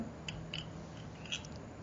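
Soft scratchy rustling of a microphone cable being played with and rubbed by hand, with a few small crackling clicks spread irregularly over a quiet, noisy background.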